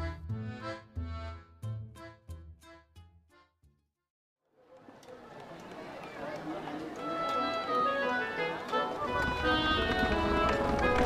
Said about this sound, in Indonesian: Wah, wah, Lihat, pagi-pagi begini di pasar udah ada kereta kencana yang lewat. Pasti di dalamnya itu adalah salah satu anggota keluarga kerajaan kan adik-adik ya? Wah, soalnya kereta kuda yang baru lewat itu nggak seperti kereta kuda yang biasa.